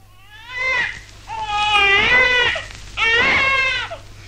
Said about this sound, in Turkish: Ne yaptın da ağlattın çocuğu gene Ne beceriksizsin yarabbi Bir çocuğu oyalayamıyorsun